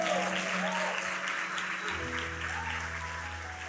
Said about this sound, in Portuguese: Você pode aplaudir o Senhor pela vida dele?